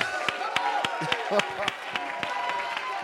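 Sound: audience cheering and clapping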